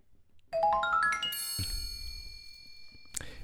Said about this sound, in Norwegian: så jeg tenker vi tar en liten jingle.